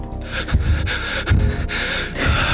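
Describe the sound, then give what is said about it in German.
Someone imitates heavy panting breaths as at high altitude, a few forceful huffs and snorting inhales in an uneven rhythm, with no talking. “Und auch nicht hechelnd atmen.”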